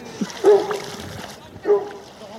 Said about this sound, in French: Donc l'idée c'est de partir dans le zodiaque avec un chien. Vous avez une minute pour que le chien saute dans l'eau. Au bout d'une minute, si le chien ne veut pas sauter, vous l'aidez à sauter.